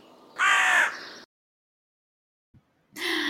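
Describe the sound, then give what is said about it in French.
Two loud, harsh carrion crow caws, separated by a second and a half of silence, with a faint click just before the second call. “Bon, ça, euh, par contre, c'est une corneille.”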